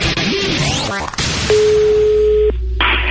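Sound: dropped phone call tone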